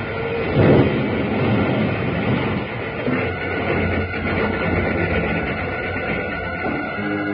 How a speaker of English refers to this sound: It's too late. We're going to crash.